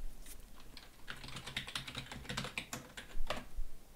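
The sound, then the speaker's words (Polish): Rapid, irregular clicking of keys on a new computer's keyboard, moderately loud, with a few sharper mouse-like clicks mixed in and no voices. “Znowu coś klikłem. Nowy komputer po prostu.”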